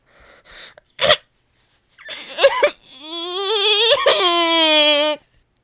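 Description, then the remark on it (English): A person's voice imitates a crying baby: a few heavy, ragged breaths and a sharp gasp, then broken sobs rising into a long, loud, sustained wail that cuts off abruptly. “A baby having an existential crisis.”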